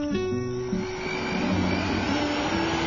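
A model airplane's small, powerful electric motor whirs steadily and loudly, its whining pitch shifting slightly early on before settling into a continuous buzzing drone, with no voices.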